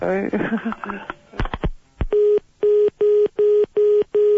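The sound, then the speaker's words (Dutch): Speech and a few clicks give way to a steady series of six identical electronic phone beeps, evenly spaced and loud, each a flat tone about a quarter second long. “Zelfs zijn telefoon doet raar.”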